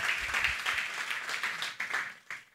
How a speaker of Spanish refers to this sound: Ese, ese drama de tremenda producción. Otro aplauso a todo el elenco y a todo el equipo.